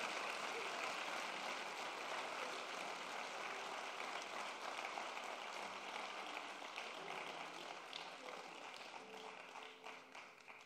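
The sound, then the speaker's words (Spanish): A crowd applauds steadily, a dense wash of many hands clapping at once, holding strong for most of the stretch before gradually thinning toward the end. “Vamos, dale tu mejor aplauso.”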